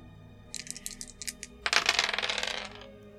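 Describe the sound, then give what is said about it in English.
A few quick, light clicks as dice rattle, then a sharp burst of dice clattering and tumbling across a hard table, fading out after about a second, rolled for a power check. No voices. “Roll a power check.”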